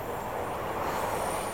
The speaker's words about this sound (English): We're on the train.